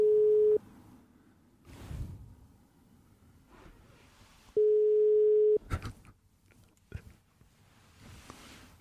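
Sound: phone call ringing tone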